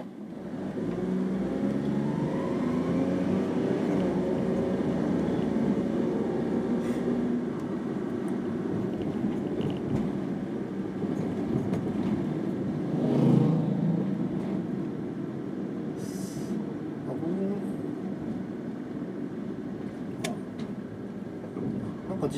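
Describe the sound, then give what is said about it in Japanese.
Steady low engine hum and road rumble from inside a moving car entering a downtown area with many slow bicycles, continuous and fairly loud, with a brief swell in the middle as the vehicle passes something or speeds up. “誰か乗ってる人とちょっと話しながら運転してるのと変わらない感じですけどね”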